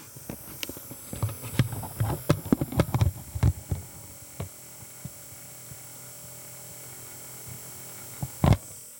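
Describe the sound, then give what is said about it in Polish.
A cassette tape recorder's lid being opened: a cluster of plastic clicks and clacks over a steady electrical hum, then a quieter stretch and one last sharp snap. “Otworzę klapę.”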